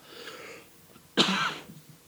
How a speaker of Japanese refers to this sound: ごめちょっと咳するわ